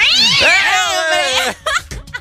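A cat lets out a long, wavering, drawn-out yowl lasting over a second, loud, followed by a couple of short, sharp vocal bursts, as cats are about to fight.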